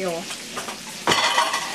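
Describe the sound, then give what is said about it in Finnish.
Doughnuts fry in hot oil with a steady sizzle that swells into louder crackling partway through; a faint voice murmurs briefly at the start. “Lasta, joo. Niin, että ne palaa.”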